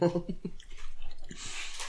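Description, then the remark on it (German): Chewing with soft, irregular crunchy and wet mouth sounds as a person eats during a recording, opening with a brief hum of voice before the munching continues. “Ich glaube, wir haben noch nie gegessen, ne? Während der Aufnahme.”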